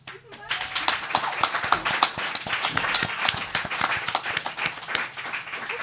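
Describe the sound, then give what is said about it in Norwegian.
An audience breaks into applause for a prize winner: many hands clapping in a dense, overlapping patter that starts abruptly and holds at a steady, fairly loud level for about six seconds. “Og applaus.”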